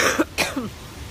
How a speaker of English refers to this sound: Fuck that cough, right?